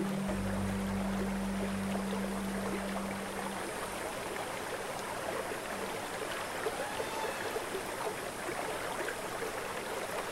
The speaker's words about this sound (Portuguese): Descendo, a água chega até uma planície arenosa. O acúmulo forma pequenos lagos e atrai um bando de elefantes que vem beber água aqui.